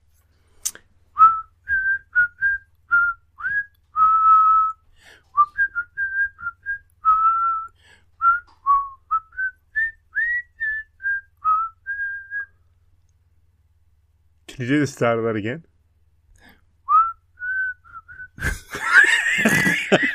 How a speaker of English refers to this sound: this one because this one really, truly does actually have whistling in it. It's not just me whistling it.